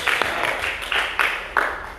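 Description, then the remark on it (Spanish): An audience applauds Christ in a steady, dense wash of clapping, with a few sharper bursts standing out every half second or so; the applause stays fairly loud throughout with no speech over it. “Un aplauso a Cristo.”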